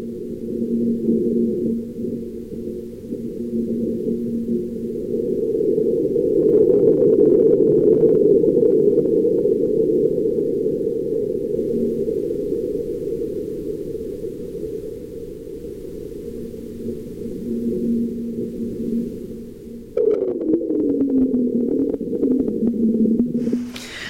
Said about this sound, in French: Alors ce qui est important, hein, c'est que même s'il ne s'agit que d'une petite secousse, là on a la certitude que c'est un tremblement de Mars, hein, c'est-à-dire que le sol a vibré.